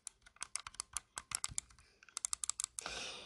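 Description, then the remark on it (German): Quick, crisp clicks of a car-shaped computer mouse in an irregular run of about twenty, fairly loud, then a brief rattling, scraping burst at the end. No one speaks. “Leute, hört ihr diese Maus?”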